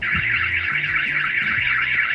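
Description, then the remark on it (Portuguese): A loud electronic alarm wails continuously, its high pitch wavering rapidly up and down in a steady siren-like warble, with some low rumbling underneath and no one talking. “Às vezes eu já não sei se o alarme tá tocando só dentro da minha cabeça ou se é no mundo real.”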